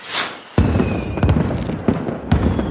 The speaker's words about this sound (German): Und deshalb haben wir keine Kosten München, ein kleines Feuerwerk hier abzubrennen.